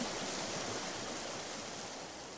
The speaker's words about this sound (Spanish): Tratan de comunicarse con él, pero el sonido del río es demasiado fuerte.